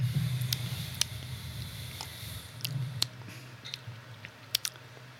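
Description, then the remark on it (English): Someone sips a drink, with a few soft wet mouth clicks and smacks scattered over a low steady hum; no one speaks. “Right off the rip, the first sip, I was like, Oh.”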